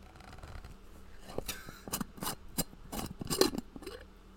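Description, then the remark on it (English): A moonshine jar lid is twisted open, giving a series of sharp metallic clicks and short scraping bursts in an uneven rhythm, with no talking. “And I am returning to the apple pie moonshine from Old Smoky. It is. Oh, here, hold on. You gotta crack yours, man.”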